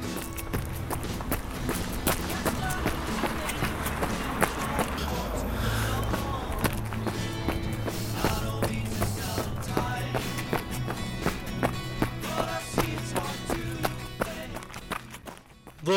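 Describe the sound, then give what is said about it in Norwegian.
Steady, quick running footsteps of a single runner on a 400-metre tartan track pound along in an even rhythm for the whole stretch, with a low, constant background rumble beneath them. “Så er her underholdningsverdien lik null. Spring alene. 400 meter.”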